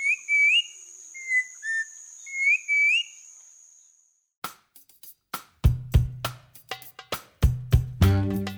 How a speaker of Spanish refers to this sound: El trino del turpial montañero forma parte del Banco de Sonidos de Aves Colombianas recopilado por el Instituto von Humboldt y la Universidad de Cornell.